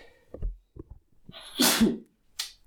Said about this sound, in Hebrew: אה, תתפסי את המיקרופון, אני מתעטש.